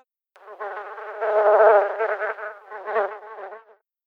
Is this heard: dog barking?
no